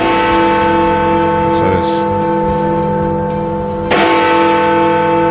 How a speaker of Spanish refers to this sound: Ponme, ingeniero, las campanadas del Big Ben, por favor.